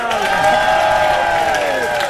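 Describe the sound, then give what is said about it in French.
An audience applauds steadily, with cheering and whooping voices rising above a dense wash of clapping that holds at an even, loud level throughout. “On peut les applaudir, ouais.”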